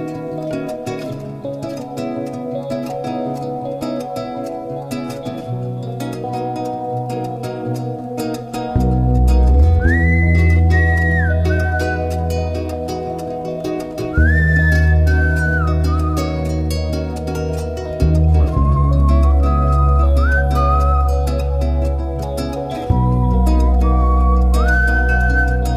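A recorded song with a female singer: a gentle instrumental opening, then a deep bass and fuller backing band kick in, with a high, sliding vocal melody carried over the steady accompaniment.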